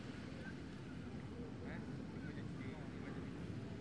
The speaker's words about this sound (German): Ich weiß nicht, ich finde diese, diese Hubschrauber im 2-Minuten-Takt, das ist alles.